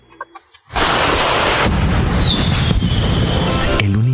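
A few soft pops give way to a loud, dense barrage of firework explosions, rapid crackling bangs running together, with a high whistle streaking through midway before the noise cuts off.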